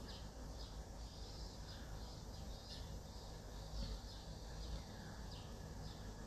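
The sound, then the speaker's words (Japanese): Cicadas, many of the min-min kind, drone steadily outdoors in Tokyo, a continuous high buzzing with small pulsing swells, while occasional bird chirps sound. No one speaks. “外の音聞こえてますかセミとか鳥とかの声聞こえますかセミの声が違うんだよな今今東京に住んでるんですけど”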